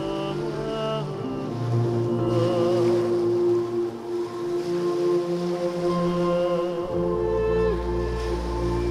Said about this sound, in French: une île qui s'est mise à grogner et une énorme baluche est sortie de l'eau. C'était pas une île, c'était un géant qui faisait la planche.